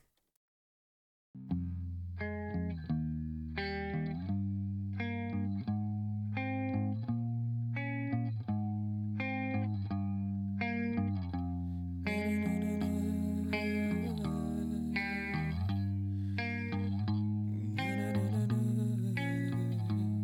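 An alternative metal song plays with heavily distorted, chugging guitars and a steady driving beat, dense and loud throughout, growing fuller with added high-end shimmer partway through. No one speaks over it.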